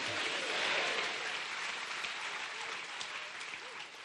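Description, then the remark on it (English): An audience clapping hands together, a dense, continuous wash of applause that holds steady for about four seconds, swelling slightly early on, with a few faint voices mixed in underneath. “Clap your hands and say, I want to think saved.”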